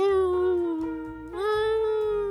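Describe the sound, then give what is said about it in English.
A pet cries at the back door in a long, drawn-out wail that dips briefly and then rises into a second sustained cry. It is loud, with no talking. “And he's just crying at the back door.”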